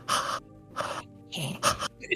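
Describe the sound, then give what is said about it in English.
A voice imitates the raspy breathing of a Regenerator monster from a video game: four harsh, wheezing breaths in quick rhythmic succession, fairly loud, with no spoken words. “I swear, somebody literally put a video one time where it was literally just an hour of the regenerator breathing.”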